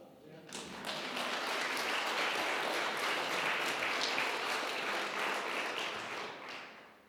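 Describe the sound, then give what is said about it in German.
A crowd breaks into steady applause, many hands clapping in a dense, crackling wash that holds at an even level for several seconds before tapering off. “Ich glaube, das ist ein Applaus wert, oder?”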